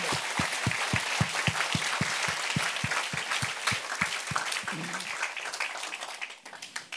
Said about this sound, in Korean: 우리 어, 우리 이 모든 은혜를 허락하신 하나님께 감사의 박수를 영광의 박수.